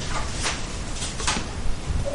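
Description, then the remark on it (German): A small wheel at the bottom of a door being turned, giving a couple of brief scraping clicks over a steady hiss. No one speaks. “Drehen Wo? an dem Rädchen, das an der Tür ist.”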